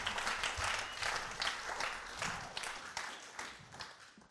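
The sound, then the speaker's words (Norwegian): Sustained applause from an audience for the band at a church service, a dense wash of many hands clapping at once, steady and fairly loud throughout with no voices standing out. “Kan vi gi en applaus til bandet?”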